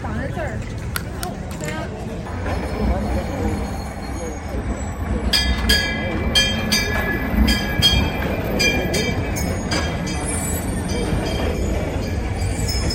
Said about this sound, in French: Avec ce tramway ancien, on peut monter et redescendre cette rue qui fait plusieurs kilomètres de long